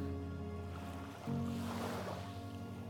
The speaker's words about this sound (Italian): Stare a riva con i piedi toccati dalla cima dell'onda che si spinge fino a te avvolti poi dalla risacca che arretra e poi appena sepolti nella sabbia da cui rapida l'acqua drena via